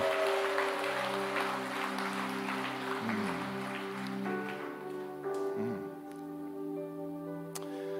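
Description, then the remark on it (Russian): A church audience breaks into steady, dense applause for God over sustained keyboard chords. The clapping is strongest at first and thins out in the second half, leaving the held music ringing on. “Дай Господу огромный, огромный, огромный, огромный аплодисмент.”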